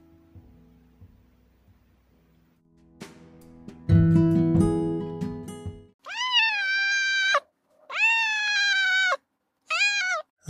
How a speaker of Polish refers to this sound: Za drzwi mojej pracowni e, słychać teraz cichutkie drapanie. Dobija się do mnie moja kotka domowniczka, troszeczkę znana niektórym z mojego profilowego zdjęcia na Facebooku, więc za chwilę będę musiał się nią zająć.